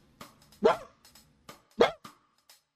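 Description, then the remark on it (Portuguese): A small dog gives two sharp, high-pitched barks about a second apart, with fainter yips and clicks in between, heard in the background of a mobile phone call, with no one talking. “Mas e esse barulho ali é, um, é o que, que é um cachorrinho?”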